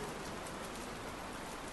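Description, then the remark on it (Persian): Steady rain pours down in a dense, continuous hiss, drops pattering evenly on a surface with no pauses. Moderately loud, with no voices. “خلاصه اگر دیدی این کاغذ ها کمی لک برداشته بدان کار باران است”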